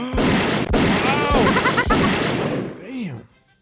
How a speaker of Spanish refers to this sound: y, pues traía una pata quebrada a mi caballo. Y entonces eh, me tuve que bajar de mi caballo y que le doy unos balazos.